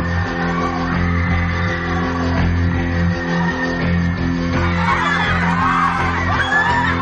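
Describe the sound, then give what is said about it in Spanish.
A crowd of school students screams and yells in panic as they run away after loudspeakers emit a strange sound, the frantic shouting swelling louder toward the end over a steady low droning background. “Los alumnos corren despavoridos.”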